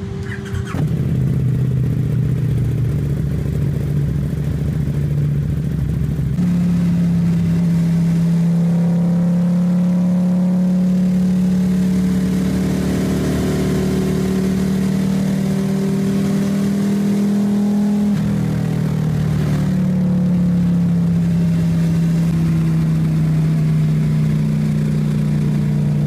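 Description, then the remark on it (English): A stock motorcycle engine drones steadily for about 26 seconds as the rider hits the throttle, its loud low pitch stepping up in stages as the revs climb, briefly dropping and rising again near the end, with no voices. “So I think there might have been one gear down because he hits the throttle and just like rip, and then it was done.”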